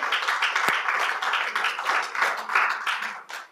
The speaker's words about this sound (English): Come on, can we give him a hand clap of praise this morning?